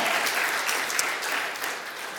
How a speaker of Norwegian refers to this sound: Og det var 30 stykk som kom fram til forbønn her etter talen, og det syns jeg er veldig flott. Jeg vet ikke hva dere, jeg tenker kanskje en liten klapp fortjener det.